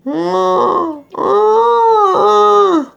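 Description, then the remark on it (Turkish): A person imitates the drawn-out, human-like moaning yowl of a cat in heat wanting to mate: two long, wavering wails with a brief break between them, loud. “Bayağı can çekişen, inleyen insan sesleri var. Korkunçlar. Ama bu sesler gerçekte çiftleşmek isteyen kızışan kedi sesleri.”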